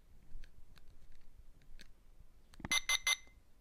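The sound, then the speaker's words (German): Several soft button clicks as buttons on a talking alarm clock are pressed, then three loud, rapid electronic alarm beeps, with no one talking. “Er sagt mir ja, wenn ich auf den Knopf rumdrücke, was passiert.”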